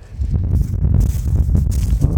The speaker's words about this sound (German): Ja, ja, das einzige Problem, was wir haben, ist der Wind.